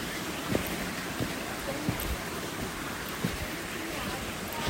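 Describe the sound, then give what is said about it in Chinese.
Many small waterfalls on a mountain trail pour in a steady, hissing rush that fills the whole clip at an even level, broken only by a few faint, brief knocks. “好多小小小瀑布，小小瀑布。”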